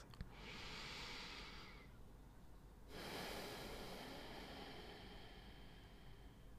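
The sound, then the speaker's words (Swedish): A person takes two long, airy breaths: a steady hissing inhale lasting about two seconds, a brief pause, then a longer, broader exhale. No one speaks. “Ibland räcker det med att höra ordet andning och kanske till och med höra någon andas.”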